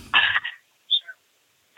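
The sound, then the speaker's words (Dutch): A single harsh cough bursts out, followed by a couple of faint, short throaty sounds, then quiet. “Sorry, ik moest even hoesten.”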